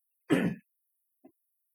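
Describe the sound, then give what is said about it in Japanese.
A single rough throat clearing lasting about a third of a second, followed by a brief faint vocal catch a moment later, with silence around it and no talking. “ちょっとあの、咳払いします。”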